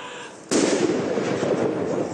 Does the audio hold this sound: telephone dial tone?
no